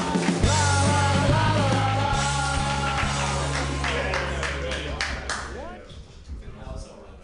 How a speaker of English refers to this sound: So come see him and support him this Friday. But clap right now wildly for